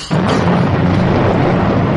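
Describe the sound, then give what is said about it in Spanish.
Thunder of a terrible storm in the countryside: a loud, deep rumble bursts in suddenly and rolls on steadily for a couple of seconds, heavy in the low end with a rough, noisy roar above and no voices. “Sorprendióla una terrible tempestad.”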